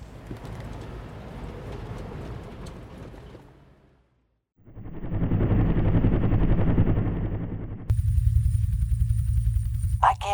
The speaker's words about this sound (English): It's called a helicopter and it serves our purpose well.